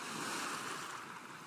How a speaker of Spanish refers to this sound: Debajo de mí, las rocas Detrás de mí, las olas rompiendo con la orilla rocosa y su olor a poder con el tiempo existen.